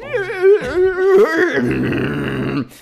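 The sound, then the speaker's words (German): A voice imitates a 56K dial-up modem connecting, gliding through warbling pitched tones and then breaking into a harsh, hissing screech for a few seconds, loudly. “mechanischen Dinge sind in einem Modem, was diese Laute von sich gibt?”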